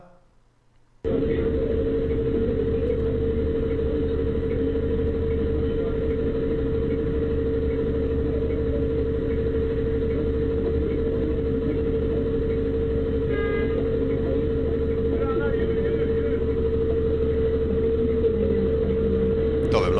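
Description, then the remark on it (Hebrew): A bus engine in Turkey runs steadily, a loud, constant droning rumble with a steady hum that starts abruptly after a brief pause and continues unchanged, with faint voices in the background, as the bus driver suffers a heart attack. “טורקיה, נהג אוטובוס חוטף התקף לב, בואו נראה איך זה נראה, נשמע.”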